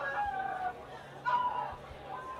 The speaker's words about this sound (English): Is that the chicken scene again? I think I think this is his reaction to Star Wars, uh, Star Trek. it's the chicken scene again.